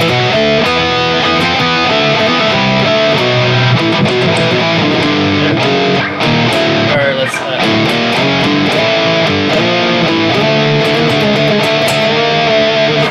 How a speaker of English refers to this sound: But I like doing stuff like doing not just octaves, but really messing with like stuff like uh, like what I have right now is a normal voice and then one that's down a seventh. So then it gives you this really cool harmony.